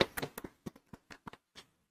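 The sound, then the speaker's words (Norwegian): A short, quiet burst of applause from a few people, clapping in thanks for helpers, with sharp, uneven claps that thin out and fade within a couple of seconds. No one speaks. “Ja, de fortjener vel en klapp, gjør de ikke?”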